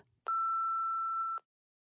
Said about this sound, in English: Leave a message after the bleep.